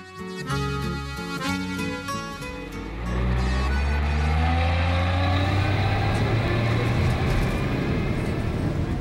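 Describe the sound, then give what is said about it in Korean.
After a brief stepped electronic tone sequence, the steady rumble inside a city bus running in Seoul takes over, its engine droning loudly and whining upward in pitch as it pulls away and gathers speed. “서울 시내를 운행하는 한 버스 안.”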